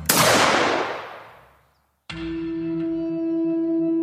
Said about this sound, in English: their shouting was pierced by gunfire.